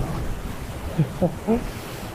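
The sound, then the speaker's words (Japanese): Strong wind roars steadily with a low, rushing rumble throughout, shaking the branches and leaves of many trees before dawn on Thursday, 9 February 2023, with no rain falling; a few brief vocal sounds break through near the middle. “今日ね、曇りとか雨ではなくて、おそらく晴れだと思うんですけど、強風という感じですね。結構今風強いですね。”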